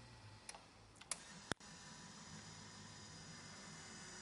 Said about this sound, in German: Man hört also im Hintergrund auch jetzt gerade die Motoren und die Relais klackern, wenn man da auf die Tasten drauf drückt.